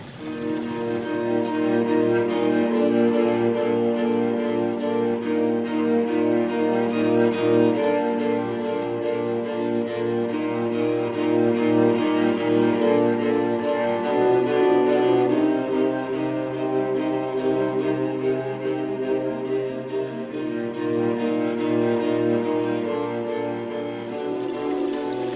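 A steady, unbroken rush of flowing water runs for the whole stretch, dense and fairly loud with a constant hum-like body, no voices over it.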